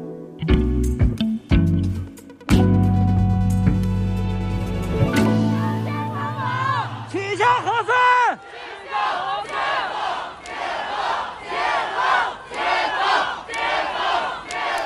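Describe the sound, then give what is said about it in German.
After a brief musical sting, a loud crowd of protesters in China shouts and then chants in rhythmic, repeated bursts, many voices rising and falling together in protest. “Ja, da hören wir Proteste aus China.”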